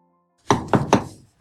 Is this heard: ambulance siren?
no